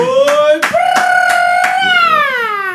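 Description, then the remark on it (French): A handful of sharp, evenly spaced claps ring out beneath a long, sustained cheering whoop from a voice, like a small audience applauding with enthusiasm for a local rap group. “On va faire du bruit”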